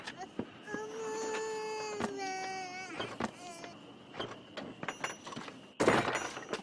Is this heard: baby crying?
yes